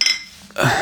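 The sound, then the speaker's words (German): Glasses clink together in a toast in an office at a university, a bright chime with a short ringing tone, followed by a burst of clattering noise as the glasses move apart. “Auf die nächsten zwölf. Prost.”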